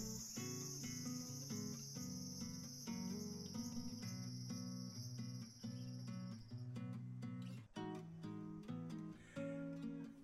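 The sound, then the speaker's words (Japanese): A steady, shrill drone of summer cicadas comes from outside through a thin room window, over soft background music. It holds constant for several seconds before cutting off, leaving the music playing alone. “ね、窓の薄さを物語っているかのような セミの音。”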